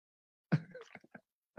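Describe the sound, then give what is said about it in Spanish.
A quiet sip of water: a soft wet slurp followed by a few small gulping clicks, then a brief final swallow, with silence before it and no talking. “Déjame tomar un sorbito de agua nuevamente, porque esa es una pregunta bastante común.”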